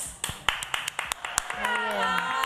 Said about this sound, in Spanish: Primer aplauso al programa.